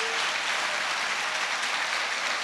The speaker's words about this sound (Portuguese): Aleluia. Este é o aplauso Academia da Fé, amém?